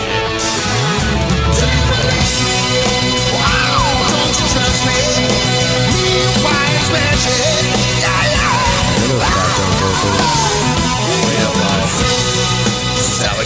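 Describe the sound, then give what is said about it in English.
A loud, dense rock song with a drummer pounding the bell of the ride cymbal in a steady, insistent pattern over heavy guitars and a strained, shouted vocal. “knocking the shit out of the belt with his ride once again.”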